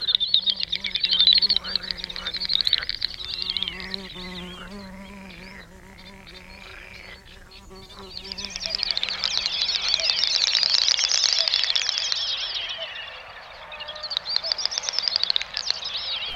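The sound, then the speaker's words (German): A great snipe's display call: rapid bubbling, clicking chatter mixed with high, buzzy whistled bursts that swell and fade in waves, fairly loud and continuous, with no voices. “die Doppelschnepfe eben in Sumpfgegenden.”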